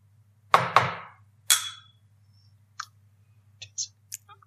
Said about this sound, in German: für die, die sich über dieses Klopfen wundern, ich habe ein kleines bisschen Anstoß-Tourette. Ich muss immer zweimal auf den Tisch klopfen, bevor ich anstoße.